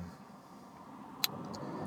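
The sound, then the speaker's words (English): Steady low rumble of traffic on a road, heard from a car parked beside it, with a car passing, plus a brief sharp click partway through; no one is speaking. “It um, seems like I'm parked on a road of traffic, so hope you can bear with the noise of the cars going by.”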